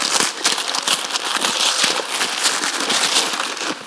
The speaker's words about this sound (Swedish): Man river upp pappret. Allt man kan. Och nu var det bara en skokartong där.